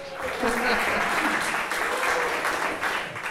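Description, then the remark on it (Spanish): A crowd applauds the computer engineers steadily for a few seconds, a dense wash of clapping that stays loud throughout, with a few voices faintly calling out beneath it. “Denles un aplauso a los informáticos.”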